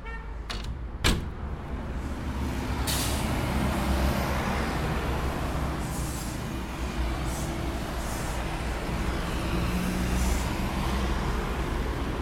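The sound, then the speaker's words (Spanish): Loud, constant city street traffic heard through an opened apartment window, at about 73 to 75 decibels, with heavy engine rumble, broken by a few sharp hissing bursts like truck air brakes releasing. A couple of quick clicks and knocks sound at the start. “ahora abramos la ventana”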